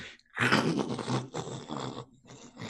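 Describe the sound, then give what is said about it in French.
A voice imitates a creature clawing at a car roof and trying to grip onto it, with harsh, raspy scraping noises in a few rough bursts, loud, with no actual speech. “Et euh, vous le sentez comme assis de tenter de s'agripper sur le toit de la voiture. Ça fait une espèce de.”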